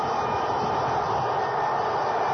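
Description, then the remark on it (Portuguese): A dense, continuous roar of a huge stadium crowd of football fans after a goal by Iguita, steady and loud throughout, with thousands of voices blending into one unbroken wall of noise and no single voice standing out. “Cada um ali no estádio está gritando sem parar.”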